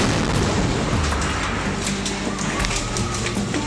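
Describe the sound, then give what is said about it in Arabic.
Dull booms from the Israeli bombardment of the Shuja'iyya neighbourhood in the eastern Gaza Strip at dawn on 20 July 2014 rumble through a steady, dense roar, with several sharper blasts breaking out at irregular intervals. The low, heavy noise stays loud throughout. “إنهم سكان حي الشجاعية شرقي قطاع غزة خلال العدوان الإسرائيلي فجر العشرين من يوليو عام 2014 ولا يزال دوي القصف وصراخ النساء وبكاء الأطفال يتردد في آذانهم وتهتز له قلوبهم”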